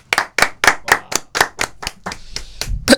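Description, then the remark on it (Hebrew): An audience claps in thanks at the close of a gathering, in a steady, even rhythm, about ten sharp, bright claps in quick succession, loud and with no talking over them. “חברים, עכשיו כפיים.”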